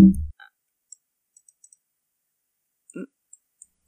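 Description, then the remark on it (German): A few scattered clicks and light knocks as a computer keyboard is handled and moved away, with a thump at the start and another about three seconds in, amid near silence. “So, die Katze hat die Aufnahme gestoppt. Ich nehme jetzt die Tastatur weg.”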